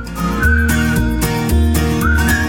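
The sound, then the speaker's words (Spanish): A melody is whistled in clear, sustained notes that step up and down in pitch, riding over a steady rhythmic backing of bass and drums. “Silbando mola mucho.”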